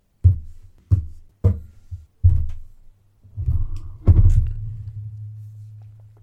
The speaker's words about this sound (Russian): Ты стучал по столу, давайте.